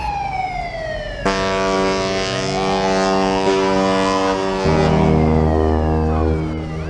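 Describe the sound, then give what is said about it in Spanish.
Deep, sustained ship horns blare in overlapping chords, loud and resonant, as the first boats, full of people fleeing by sea, leave the dock of a port, with a rising tone at the start and a new lower blast joining partway through; no one speaks. “Los primeros barcos ya salen del muelle. Oigo ahora sus sirenas.”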